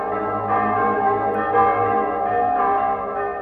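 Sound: church bells ringing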